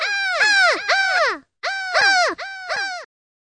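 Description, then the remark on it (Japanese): Several loud, harsh caws from many crows in quick overlapping bursts, with a short pause after the first run, then two more clusters of cawing. No one speaks. “なんかめっちゃカラス多くない”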